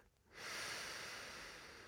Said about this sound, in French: Inspirez par le nez et sentez l'air pénétrer vos narines et l'air ressortir par votre bouche. Gardez la bouche légèrement entr'ouverte et laissez l'air s'échapper à l'expiration sans rien faire de particulier.